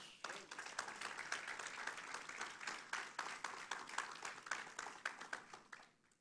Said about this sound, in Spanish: ¿Le puede dar un aplauso a Dios?